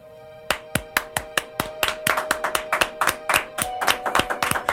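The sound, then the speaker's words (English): A small group of people clapping at the start of the Dragon Talk show, starting with a few sharp, separate claps and quickly building into quick, overlapping applause, fairly loud, with no voices. “applause starter”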